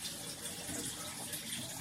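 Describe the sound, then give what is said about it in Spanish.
Water pours steadily into a blender, a continuous gush and splash lasting a couple of seconds with no voices over it. “por la licuadora, estoy echándole el agua.”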